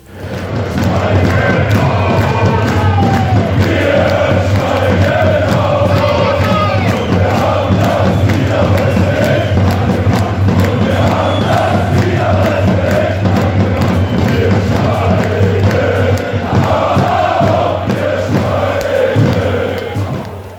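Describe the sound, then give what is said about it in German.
A dense stadium crowd of VfL Osnabrück football fans roars and cheers continuously at the end of a won match against Saarbrücken, with rhythmic chanting rising and falling over a steady low rumble for the whole stretch, loud and unbroken. “Was die gute Laune der VfL-Fans allerdings nicht schmälerte, sondern eher entfachte, wie man am Ende des Spiels im Stadion hören konnte.”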